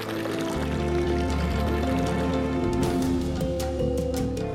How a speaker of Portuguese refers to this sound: São mais de 1.200 fontes como essa de água potável aqui na cidade.